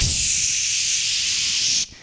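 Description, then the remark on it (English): A voice imitates a loud, steady hiss of steam escaping a broken radiator when the heat comes on, held for nearly two seconds before cutting off abruptly. The sound is strong, with no other talking. “So uh, whenever the heat would come on, it would be this extraordinarily loud”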